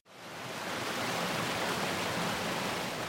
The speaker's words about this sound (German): Die Leusach bei Großweil. An einer Flussbiegung fließt das Wasser über eine sogenannte raue Rampe quer im Strom.